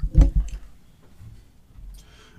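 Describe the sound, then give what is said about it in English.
Liquid is poured out of a bottle for dead friends, loudest in a short gush at the start, then a softer low gurgle and a brief hissing trickle at the end. No one speaks. “I'm pouring out a bottle.”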